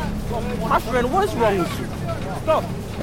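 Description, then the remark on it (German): A steady low engine drone from a fishing cutter at sea runs throughout, with two men's raised voices arguing loudly over a bottle of water at the other end of the boat over the rumble. “Zwei Männer streiten sich am anderen Ende des Kutters um eine Flasche Wasser.”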